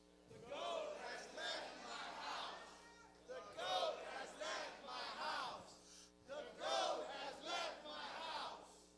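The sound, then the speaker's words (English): A large crowd shouts the phrase "The goat has left my house" together three times in a row, each loud, unified burst separated by a short pause. “I want us all to shout out loud, please, three times.”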